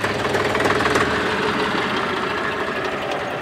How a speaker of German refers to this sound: Ja, das ist doch Musik in den Ohren, oder? Genau, das ist jetzt ein Dreizylinderklang, Dreizylinder luftgekühlt, also das zweitgrößte, was damals ähm, gebaut wurde von, von Porsche und entwickelt wurde.